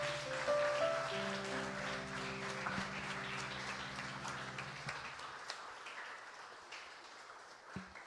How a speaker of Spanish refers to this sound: Gloria al Señor. Denle una ofrenda de palmas al Rey.